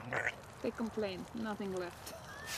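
Several short, nasal honking calls from geese, hens and turkeys come in quick uneven bursts, squawking and complaining together because there is nothing left to eat, with a brief higher squeak near the end.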